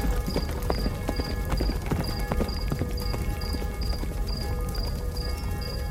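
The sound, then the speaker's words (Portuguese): Horse hooves clip-clop in a steady, even rhythm at a walking pace, with a faint high tinkling pulse repeating alongside and a low rumble underneath. “Quando foi montar seu cavalo”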